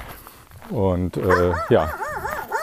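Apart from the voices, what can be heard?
dog barking and whimpering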